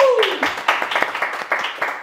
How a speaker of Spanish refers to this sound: Y bueno, muchísimas gracias por los aplausos.